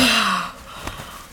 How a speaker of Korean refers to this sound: 할머니가 하품을 했다.